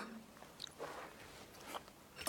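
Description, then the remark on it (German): Soft mouth noises of someone swallowing a few drops of water from the hand during a purification ritual with the mantra Om Achyutaya Namaha: a few quiet wet clicks and gulps spread out over a couple of seconds, with no talking. “Wieder ein paar Tropfen Wasser schlucken.”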